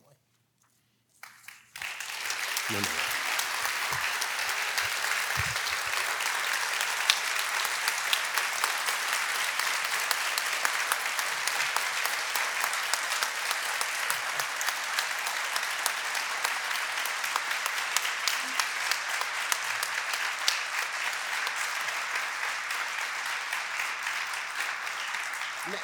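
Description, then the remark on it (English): An audience breaks into sustained applause, a dense, steady wash of many hands clapping that starts abruptly after a brief quiet moment and continues loudly without letting up. “Now, now I hope you're not clapping because I'm finally leaving.”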